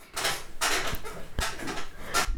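A desk chair in the speaker's room creaks and rustles in several scraping bursts as someone shifts their weight in it, with no one speaking.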